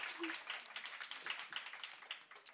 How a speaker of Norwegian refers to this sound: Ja, det er veldig fint å klappe.